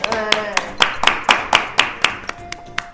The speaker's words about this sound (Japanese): あらまあらまちょっとこれ拍手ですね